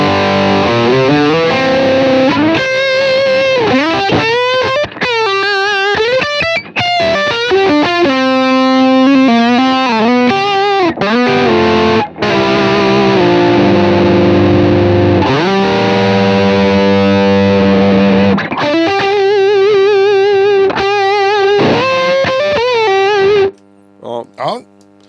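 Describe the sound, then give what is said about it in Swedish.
A distorted electric guitar played through a UA Lion amp emulator pedal, loud and saturated, with bends, sustained notes and quick runs throughout, ending in a couple of short picked notes after a pause. “UA LION test”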